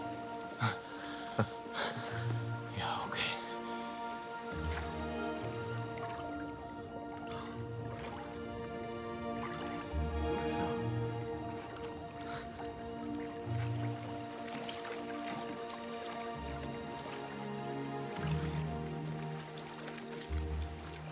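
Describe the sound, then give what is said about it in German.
Steady, squelching footsteps slosh through shallow water at an even walking pace for the whole stretch, with wet splashes and drips over a constant tonal hum. “Lauf über das Wasser.”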